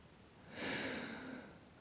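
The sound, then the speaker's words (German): A single soft snore from a sleeping little girl, a breathy rasp with a faint low drone lasting about a second, quiet with no talking around it. “Die schnarcht schon ein bisschen.”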